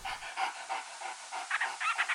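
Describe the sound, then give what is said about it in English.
An ecological detector dog trained to find 'Akē'akē seabird nests in Hawaii pants rapidly and steadily, quick breathy huffs repeating in an even rhythm, growing slightly stronger toward the end, with no voices present. “he's the primary 'Akē'akē dog.”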